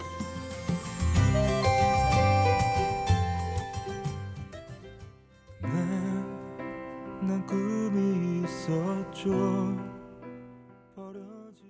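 A Korean pop ballad plays on a late-night radio program with full, sustained instrumentation, briefly dipping midway before swelling again and then tapering off softly toward the end.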